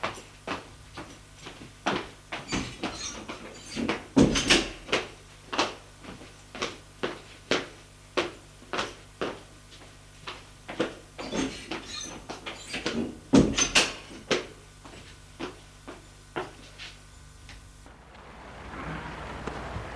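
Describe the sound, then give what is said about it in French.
An apartment door opens and later closes with two heavier thuds as a woman leaves the apartment, amid a steady series of sharp, evenly spaced clacks like footsteps, ending in a soft rush of background noise. “Alors vite elle prend la carte et sort de l'appartement.”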